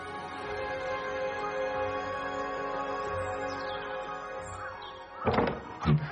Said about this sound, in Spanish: La puerta entonces se abrió y apareció una mujer rechoncha con un gran gorro de cocinera.